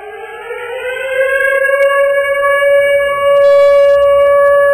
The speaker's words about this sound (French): Ah, j'ai envie qu'on fasse jouer la, sirène du couvre-feu, une petite sirène de guerre pour nous mettre dans le mot de samedi.